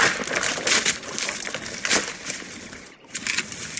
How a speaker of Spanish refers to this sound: Con mucho ruido, estallidos y chasquidos de ramas rotas a su paso,